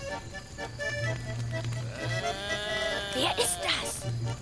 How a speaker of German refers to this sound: Ein Ziegenbock.